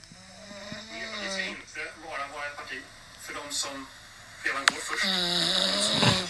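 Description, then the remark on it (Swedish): A voice imitates snoring: a string of rough, buzzing, drawn-out breaths in an uneven rhythm, growing louder and harsher toward the end. “Vem var det som snarkade?”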